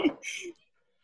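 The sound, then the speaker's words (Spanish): A single sneeze, a short voiced intake snapping into a hissy burst, followed by silence. “Salud.”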